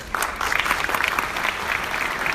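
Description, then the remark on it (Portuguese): Steady applause from an audience before the music begins, dense clapping filling the whole moment at a moderate, even loudness with no voices standing out. “E por falar em palmas, a música vai começar.”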